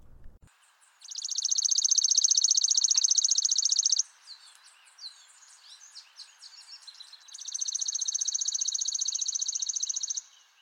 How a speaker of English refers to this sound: The chipping sparrow and also the worm eating warbler were said to have similar calls too. Here's the chipping sparrow.